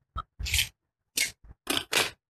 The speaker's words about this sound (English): Oh no. I reached in the cup to grab the dice and it hit the screen.